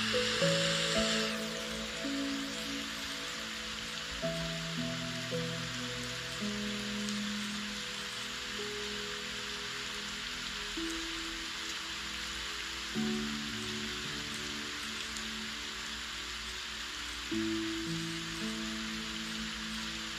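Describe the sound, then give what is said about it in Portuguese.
Steady rain hisses evenly throughout, a soft continuous wash of drops, with gentle sustained musical tones playing over it. No one speaks. “enquanto chove e você ouve a música.”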